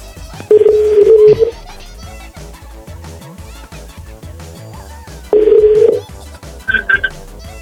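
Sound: telephone number being dialed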